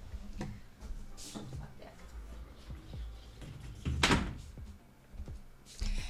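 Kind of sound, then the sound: household object, door being closed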